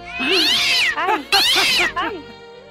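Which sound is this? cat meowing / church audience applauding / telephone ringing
cat meowing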